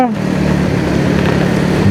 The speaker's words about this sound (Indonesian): kan gue ngerekamnya sambil naik motor ya jadi ya lu maklum aja kalau misalnya kedengeran suara motor, suara jalanan, suara klakson, suara tadi motor berisik geber geber.